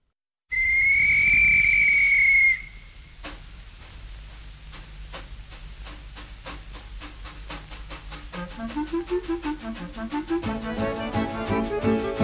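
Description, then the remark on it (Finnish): A loud, sustained train whistle blows for about two seconds as the train departs from Seinäjoki station, then steady rhythmic chuffing starts and quickens as the train pulls away, with rising mechanical clatter toward the end. “Mars kaikki Pohjanmaan pakolaiset Seinäjoen aseman lastauslaiturille. Juna lähtöö justiisa.”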